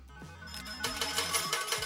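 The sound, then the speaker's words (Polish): A short random-draw sound effect: a few soft electronic tones lead into a bright, busy burst of shimmering, ringtone-like notes, lasting about two seconds with no talking over it. “Uwaga, puśćmy dźwięk losowania.”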